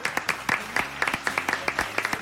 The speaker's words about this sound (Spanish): Un aplauso.